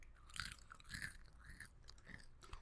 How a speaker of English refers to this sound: stop chewing on the mic.